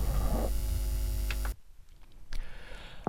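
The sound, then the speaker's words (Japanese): A loud, steady electrical hum with buzzy overtones and hiss from a Model 12 mixer with its gain turned fully up fills the first half, cuts out abruptly, then returns as rougher crackling noise near the end. No one speaks. “はいこれぐらいでまあノイズがちょっと聞くに耐えないぐらい入りますこれがモデル12のゲインをフルに上げた状態ですね DMAT2 の状態ですこれはなんかケーブルが悪いような気もしますがかなりノイズが乗っているという状態ですね”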